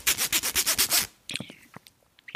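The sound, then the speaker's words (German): A zipper is pulled in a quick run of about eight rasping bursts lasting a second, followed by scattered soft clicks and rustling of the fabric. “Reißverschluss.”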